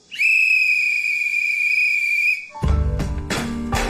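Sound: whistle being blown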